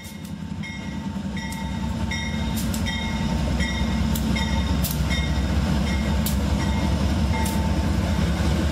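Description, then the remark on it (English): An Amtrak passenger train, 234 miles into a journey from Bakersfield, rumbles steadily along the rails, its low roar growing slightly louder, with faint high squeals and periodic clicks from the wheels, without any talking. “We're now 234 miles into our journey from Bakersfield, about another 70 miles to go.”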